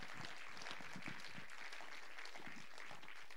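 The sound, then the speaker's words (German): Sustained applause from an audience for God, a dense steady wash of many hands clapping at once for a few seconds, with no voices standing out above it. “Lasst uns mal Gott einen Applaus geben.”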